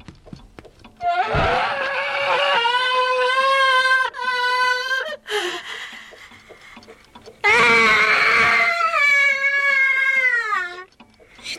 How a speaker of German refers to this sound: wenn sie in das Uhrenzimmer zum ersten Mal kommen ja. und diese Schreiparade losbricht